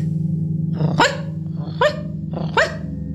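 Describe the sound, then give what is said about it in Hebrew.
A barking sound, coming from an elephant's second trunk, sounds three times at roughly even intervals, each bark sharp, over a steady low droning hum. “נשמע קול נביכה מחדק השני.”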